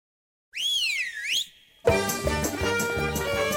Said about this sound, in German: Komme, was wolle, wenn unser Funkrebbe Rabbiner Joel Berger mit seinen Überlegungen fertig ist, pfeift sie bei uns auf Bayern 2 und dieser Pfiff sagt uns Freitag für Freitag, jetzt kommen unsere Lichtzündzeiten, die Smanim